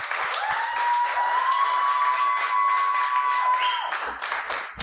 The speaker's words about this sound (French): Fait que j'aimerais euh, qu'on donne une bonne main d'applaudissement à mes invités de ce soir qui vont venir à l'instant.